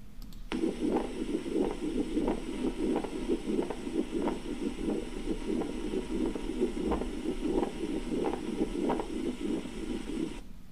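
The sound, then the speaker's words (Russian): A pericardial friction rub heard through a stethoscope: rhythmic scratchy, leathery bursts repeating with each heartbeat over a low steady rumble, fairly loud, with no talking. “Это был шум трения перикарда.”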